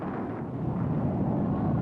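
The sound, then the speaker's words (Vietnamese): A steady, loud roar of four American jet fighters with swept-back triangular wings, long bodies and tails passing overhead above a militia unit at Bảo Ninh, a broad rumbling wash of engine noise that holds constant throughout with no voices. “Ở trên đầu tôi là bốn chiếc phản lực xâm lược Mỹ đang vun vút lao tới.”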